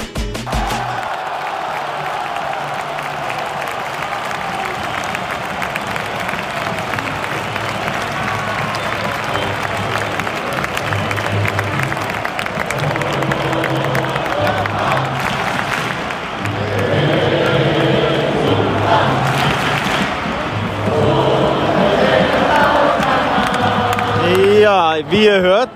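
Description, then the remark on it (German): A dense, steady roar of a large stadium crowd cheering and applauding at the final whistle of the FC Barcelona versus Espanyol derby, won 1-0 by Barcelona in Xavi Hernandez's coaching debut; loud throughout and swelling further toward the end, with whistle-like tones rising over the din in the final seconds. “Das war der Schlusspfiff. Der FC Barcelona gewinnt beim Trainerdebüt von Xavi Hernandez.”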